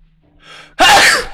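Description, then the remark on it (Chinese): A single loud sneeze: a breathy intake building for a moment, then a sudden explosive burst that trails off quickly. No one speaks. “老妹儿，你快点你给我等打喷嚏了！”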